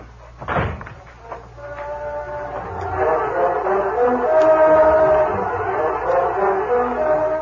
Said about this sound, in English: After the key turned in the storeroom door, Dan heard the three men leave the office.